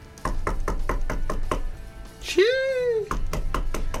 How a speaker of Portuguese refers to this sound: alguém batendo na porta do vestiário.